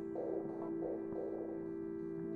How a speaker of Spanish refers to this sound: Perdón. Eh, se escucha una interferencia en el micrófono.